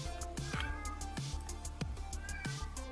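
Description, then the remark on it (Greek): A male pet cat meows again and again, about four drawn-out, insistent cries in quick succession, fairly loud, with no one talking over them. “στο background είναι ο γάτος μου Ίντι, ο οποίος τρώει”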